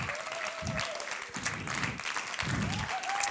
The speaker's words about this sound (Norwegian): Eh, men kan vi ikke ta og gi de knallene som sitter bak der, en enda bedre applaus for den utrolig gode jobben de gjør? Ja, Det er lov til å snu seg og se på de òg.